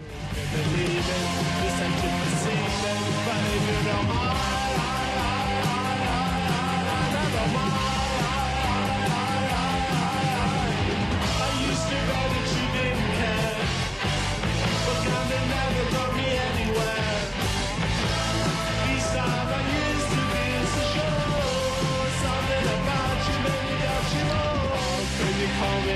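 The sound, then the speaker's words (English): A famous rock song played back at a slowed-down speed, with full band, steady drums and sustained harmonic tones running loud and continuous for the whole stretch, with no talking over it. “that's the famous song uh, from the …. You just slow it down. It's the ….”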